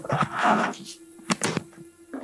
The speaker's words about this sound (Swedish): Dörren stängs och förhöret börjar.